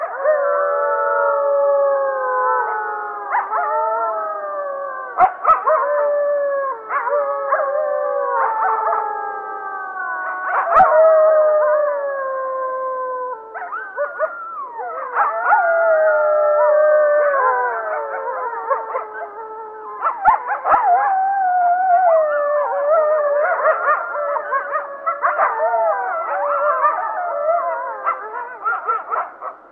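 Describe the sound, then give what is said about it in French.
A pack of wolves howls together in a dense chorus, many overlapping voices gliding up and down, loud and sustained for the whole stretch with no talking. “une meute de loups, une chorale de loups.”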